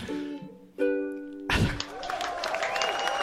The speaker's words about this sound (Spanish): me pongo yo mismo los aplausos.